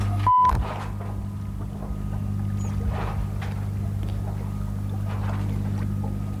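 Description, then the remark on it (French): A steady low engine hum drones beneath the rush of water along a ship's hull at sea, heard from the ship's bow at about 5:30 in the morning at sunrise, with occasional soft splashes and wind, and no one speaking. “Je suis à l'étrave du bateau.”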